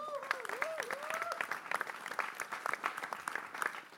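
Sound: applause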